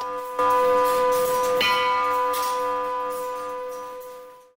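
Church tower clock bells, from a tower clock by Bernhard Schmidt, ring out with rich, sustained harmonic tones, two strikes close together followed by a long shimmering decay. The ringing is loud and clear with no voices.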